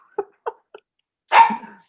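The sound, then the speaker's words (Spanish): A dog in a house barks: three short, quick yips in a row, then a pause before one louder, longer bark. No talking, just the dog. “Ahí apareció, ahí apareció un perro, uno de los, de los protagonistas del encierro en esta casa.”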